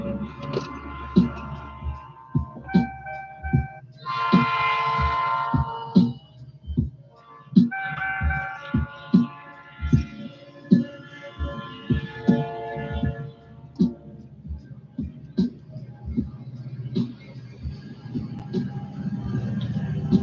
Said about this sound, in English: Trains are coming. So after this train blows through, we're going to get it started.